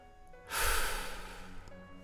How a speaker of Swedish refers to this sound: Fram till en av bänkarna här man kan vila sig om man är riktigt sjuk och ska ta sig mellan de olika avdelningarna. Jag sätter mig där och bara andas.